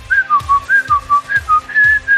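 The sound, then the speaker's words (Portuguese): Someone whistles the theme from the Halloween film, a short, eerie horror-movie theme in quick, evenly paced notes that dip and rise in a repeating pattern, with soft low thumps pulsing underneath. No one speaks. “Mas vai assoviando que vai dar tudo certo.”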